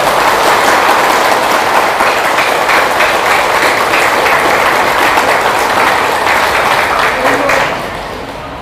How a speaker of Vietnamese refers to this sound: thì xin quý vị hãy dành cho một tràng vỗ tay thật lớn để cam kết